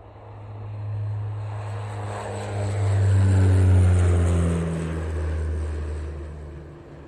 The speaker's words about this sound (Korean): 농장 옆에 작은 비행장이 있었다. 마침 그때 작은 비행기가 또 다른 비행기를 매달고 막 이륙했다.